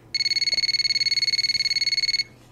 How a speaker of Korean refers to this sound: 그런데 어느 날 고향 선배에게서 갑자기 전화가 왔죠.